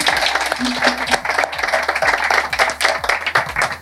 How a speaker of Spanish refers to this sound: pues no, un aplauso para